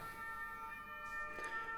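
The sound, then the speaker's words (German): An ambulance siren drones steadily in the background as the ambulance drives past, its tones held at a constant pitch, moderately faint, with no one speaking. “Jetzt fährt hier wieder ein Rettungswagen vorbei.”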